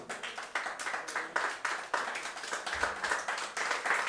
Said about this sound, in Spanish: Dale la ofrenda de palmas al Señor, pues con todo su corazón.